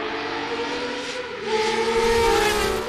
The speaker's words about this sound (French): Donc on va écouter un bruit de moteur. Quelle est cette voiture Elle n'est pas contemporaine, on va dire elle est plutôt qu'un cagénaire. Écoutez bien. Ah oui, ce son de moteur-là, ça vous parle